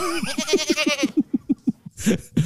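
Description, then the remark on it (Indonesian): A goat gives one long, quavering bleat that trembles rapidly for about a second, followed by a string of short, soft rhythmic bursts that sound like quiet laughter. “Dia kambing bukan?”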